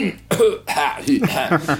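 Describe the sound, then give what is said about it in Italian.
A person imitates a theatre audience suddenly coughing: a string of coughs and throat-clearing, several quick, rough bursts in a row, fairly loud, with no other talking. “che, improvvisamente hanno tutti il colpo di tosse, da...”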